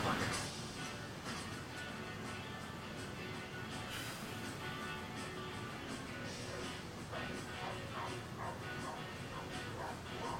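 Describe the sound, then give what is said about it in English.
A litter of puppies yips, barks and whimpers almost nonstop, overlapping high-pitched cries filling the whole stretch, with some human voices mixed in underneath. “Puppies.”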